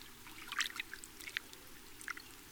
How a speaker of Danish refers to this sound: I det samme krusede vandet ude på søen, og bølger slog ind mod strandbredden.